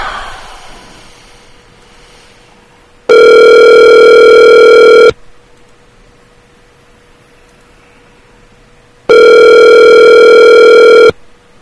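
A telephone line tone sounds twice while a call is placed, each loud, steady buzz lasting about two seconds with a few quiet seconds of faint line hum between them. No one speaks.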